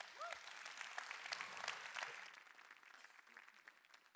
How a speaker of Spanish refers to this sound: Dale un fuerte aplauso aplauso a Dios.